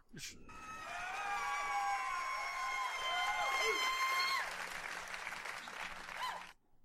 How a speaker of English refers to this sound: All right, we have to thank the studio audience for being so quiet during the show. Really, I mean, just being fun. give give yourselves a round, round of applause.